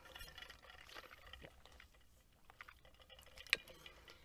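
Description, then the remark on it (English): Quiet sounds of a person grabbing water, handling or pouring it, a soft irregular trickle and splash with light movement, ending in one sharp click. No one speaks. “Sorry, I'm just grabbing water.”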